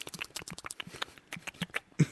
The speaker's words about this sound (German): Leuten in die Ohren schmatzen ist immer eine gute Idee.